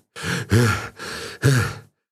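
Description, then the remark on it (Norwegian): A boatman who has jumped out of his boat and run up from the shore pants heavily and out of breath, two quick in-and-out gasps with voiced, strained exhales, fairly loud with no talking. “Ja, men slutt å pes, mann”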